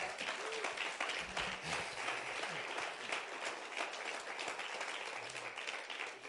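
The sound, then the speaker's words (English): A loud, sustained round of applause from a crowd for law enforcement, dense steady clapping filling the whole stretch with no pauses and only faint voices mixed in. “And can we give our law enforcement one loud round of applause in the next?”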